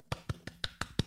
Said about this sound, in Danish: Så det der med at tage sin reportagemikrofon frem og tage ud i verden, det sidder jeg bare og klapper i mine små hænder over.